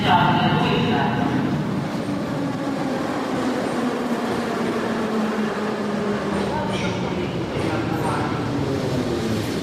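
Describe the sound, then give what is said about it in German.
A subway train heading toward Maidan rumbles steadily through a metro station, a loud continuous roar with shifting mechanical tones and a faint whine, filling the whole stretch. “Jetzt warte ich hier auf die U-Bahn, die mich Richtung Maidan fahren soll.”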